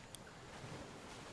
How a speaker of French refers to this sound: les moteurs des bateaux ronronnent.